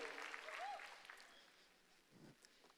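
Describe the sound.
A short burst of audience applause, somewhat distant, tapering off after a second or so, followed by a brief low voice.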